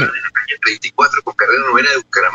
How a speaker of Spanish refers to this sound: Estoy escuchando el eco. Estoy escuchando el eco.